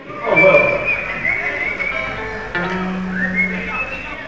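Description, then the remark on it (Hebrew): John whistles a high, wavering birdlike call with slides and trills as Paul presents a ballad from a musical, clear, while lower sustained tones hum underneath. “השמיע ג'ון שריקה של ציפור במטרה להגחיח את הסיטואציה”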